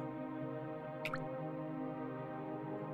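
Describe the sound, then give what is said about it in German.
A single water drop plinks into a still sinter pool that has formed underground in a cave, about midway through, a brief bright splash with a rising ring, set against a steady, droning cave hum. No one speaks. “Sie treffen auf eine flüssige Oberfläche, auf einen sogenannten Sintersee, der sich hier unten gebildet hat.”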